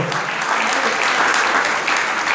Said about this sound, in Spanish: Déselo al Señor fuerte ese aplauso.